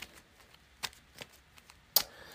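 Cards being shuffled and handled to dig out a hammer card during a solo card game: a handful of crisp, irregular snaps and clicks over a quiet background, with a sharper, louder snap near the end and no voices.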